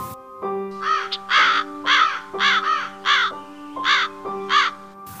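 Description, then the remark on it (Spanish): A raven caws loudly, about seven harsh, rasping calls in an uneven series, over a steady low sustained musical drone, with no voices. “Bajo el cielo marchito, un viejo cuervo batía su tristeza y con su plumaje maldito ataba la muerte a la belleza.”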